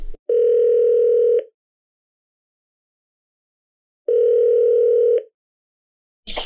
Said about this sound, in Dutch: Zullen we hem gewoon nu vragen? Ja, ja, bel We gaan hem bellen. Bellen.